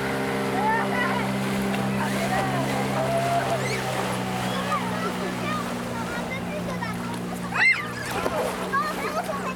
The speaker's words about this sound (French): J'ai demandé à mon père de, faire des vagues en partant avec le moteur de l'annexe.